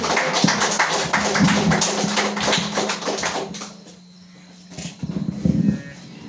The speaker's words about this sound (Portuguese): E as palmas do nome do Senhor Jesus.